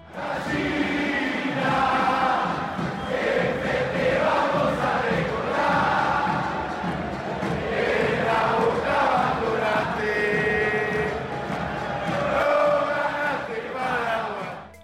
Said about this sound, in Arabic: التحفيل على الخصم من خلال الاغاني والشعارات ثقافه ارجنتينيه عريقه يا فراخ دي وصمة عار ولا يمكن تمحى أبدا هبطوا للدرجة الثانية وحرقتوا المونيمنتال هتاف شهير لجماهير بوكا